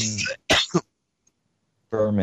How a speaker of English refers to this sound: Sorry, I was coughing.